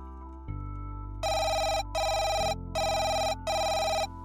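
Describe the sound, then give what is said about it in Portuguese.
A telephone rings with an incoming call, four loud, evenly spaced bursts of bright electronic trilling over a low steady hum, no voices present. “parece que vamos ter de ouvir o … mais tarde porque já temos outra chamada em linha”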